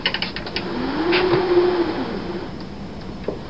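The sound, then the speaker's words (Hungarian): A theatre wind machine makes a mechanical whooshing drone that rises and falls in pitch as its crank turns, with faint clicking and rattling at the start, swelling in the middle and fading away, with no talking. “Ez pedig a szélgép.”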